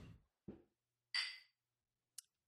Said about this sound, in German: Ähm, lass uns mal anstoßen. Ja.